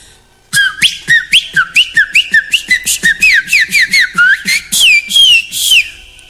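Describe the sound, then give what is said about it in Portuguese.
A person whistles an imitation of a chopi blackbird's song: a rapid run of bright, rising and swooping notes, loud and continuous for several seconds with no talking. “Eu, por exemplo, eu sei o barulho que faz o, o canto que é o do Passo Preto.”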